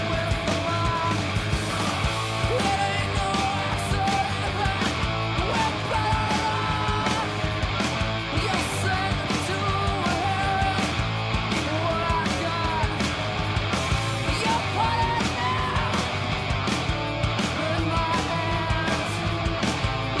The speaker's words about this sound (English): that whole screaming thing started because I couldn't hear my voice, and then when I finally actually got to hear it on the record, I mean that's what it was.